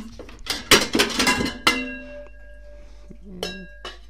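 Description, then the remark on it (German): Metal cookware clanks and clatters as a pan and lid knock together in a quick burst, leaving a ringing tone, then a couple more lighter clinks follow, as someone gets out a pan and looks for its matching lid. “so, also, zuerst mal eine Pfanne. Oh, vielleicht ein bisschen eine passende.”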